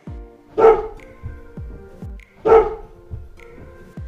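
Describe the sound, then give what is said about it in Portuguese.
A dog gives two short, sharp alert vocalizations about two seconds apart, fairly loud, with softer low huffs and breathing sounds in between and no talking. “O número 1, um, o cão pode dar um simples suspiro.”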